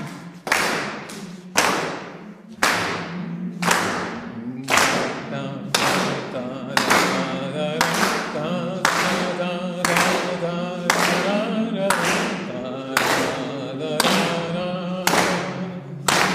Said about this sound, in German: Und ein Solo klatschen.